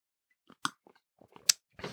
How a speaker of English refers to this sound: Coffee sip.